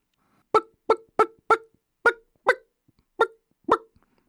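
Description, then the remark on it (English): A person imitates a wild turkey hen's clucking: eight sharp clucks in a loose, uneven rhythm, some paired quickly and others spaced apart, with quiet gaps and no talking. “That's another meager attempt of mine to sound like the hen as she strolls through most of our Brown County woodlands now with her brood following her.”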